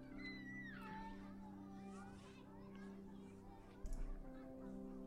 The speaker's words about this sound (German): Die Geräusche der Kinder werden immer lauter, je näher ihr auf die Spitze des Hügels zukommt. Die Kinder spielen irgendwo hinter diesem Hügel.